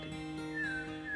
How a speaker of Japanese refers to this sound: 今日の南伊豆は雲がちょっと薄くなって水色の空になってきたかなうん鳥が鳴いている